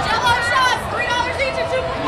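Crowd chatter along the route of a Warriors championship parade in Oakland, with lines of people held back by barricades: a dense, steady murmur of many overlapping voices blending into a continuous babble with no single clear speaker, holding an even loudness throughout.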